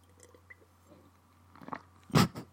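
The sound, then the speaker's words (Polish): Someone sips water in front of a microphone. Faint wet mouth clicks lead to a louder, sharp swallow near the end, all over a low, steady background hum. “Napiję się wody. Czy to będzie super słychać w mikrofonie?”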